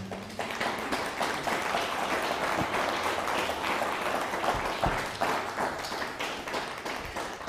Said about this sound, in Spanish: Bueno, pues un fuerte aplauso al Todopoderoso.